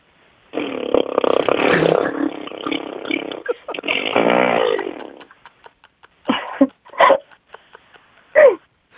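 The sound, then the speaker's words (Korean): A second-year high-school girl's voice imitates an ordinary motorcycle, not a delivery bike, starting and pulling away: a loud, raspy engine buzz for about five seconds with rising revs, then three short, sharp revving bursts separated by pauses. “아, 그냥 그 시동 걸고 출발하는 소리요.”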